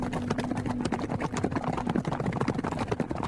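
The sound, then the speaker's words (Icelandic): A dense, continuous drumming of many hoofbeats, like a herd of horses galloping together, heard near a farm, steady in loudness with no pauses and no voices. “og svo allt í hennu heyru við svona eins og svona hestahjörð að hlaupa Já.”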